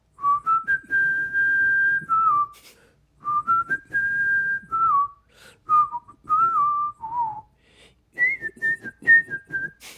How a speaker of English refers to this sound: Can you whistle? Yes. Uh, can you whistle one of your songs?